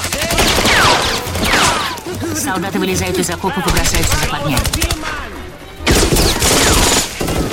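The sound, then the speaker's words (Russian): Rapid, irregular bursts of gunfire crackle and pop throughout as German soldiers open fire from trenches, with sharp overlapping shots forming a continuous volley while a man narrates over the top. “Немецкие солдаты из окопов открывают огонь.”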